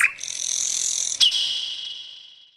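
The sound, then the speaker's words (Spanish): A northern mockingbird sings a high, buzzy, sustained trill for a couple of seconds, clear with no talking, broken once by a sharp click before slowly fading out. “Canto de Sensuntles.”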